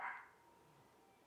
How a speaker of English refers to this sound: That's my dog barking, by the way. Now I have a grudge against my dog barking while I'm trying to record.